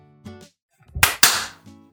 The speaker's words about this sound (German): Ich habe jetzt auch einfach mal geklatscht, ja?